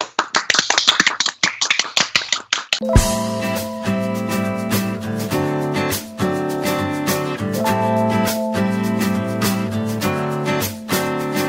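A short burst of brisk hand clapping to congratulate someone on successfully quitting their job, a quick run of sharp claps, then a cheerful musical intro with steady beat and sustained tones takes over for the rest.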